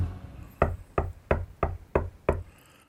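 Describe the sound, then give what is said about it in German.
Six sharp knocks in a steady, evenly spaced rhythm, distinct, with short decays between them and no voices. “Wer klopft da?”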